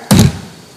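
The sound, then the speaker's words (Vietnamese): A single hand slams down hard on a wooden table, giving one loud thud that dies away quickly into quiet. “còn trong trường hợp á, là quan tưởng ảo thanh thuộc về thính giác đó thì quý vị có thể đơn giản nhất này đập xuống cái bàn”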